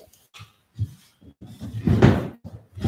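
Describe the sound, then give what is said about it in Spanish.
A few soft knocks and creaks lead into a loud crunching thud as a chair seat gives way, followed by another heavy knock at the end. “Sí, ya se fastidió el asiento de mi silla.”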